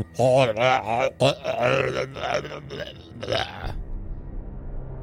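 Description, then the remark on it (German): A voice imitates the drawn-out, wet last gurgling groan of a snowman monster as it falls, rising and breaking into choppy bursts before trailing off, loud, followed by a quiet low hum. “Ein letztes gurgelndes”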